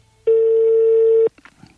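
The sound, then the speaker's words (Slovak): A telephone ringback tone: one steady, mid-pitched beep lasting about a second, loud and even, followed by faint rustling and a soft murmur. “možno má vypnuté zvonenie”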